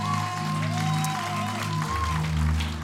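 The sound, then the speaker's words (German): A large audience at a C3 Leipzig church service applauds steadily and loudly for about three seconds for the Online Church viewers, a dense wash of clapping with sustained music tones playing underneath. “Online Church, können wir Online Church einen riesen Applaus geben?”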